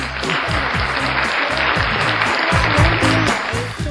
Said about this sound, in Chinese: 那么在这个大年三十即将到来的时候，我们请来了今年二零二一年特别独特的一个麦手啊，让我们热烈的掌声欢迎他。